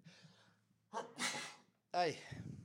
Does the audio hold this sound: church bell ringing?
no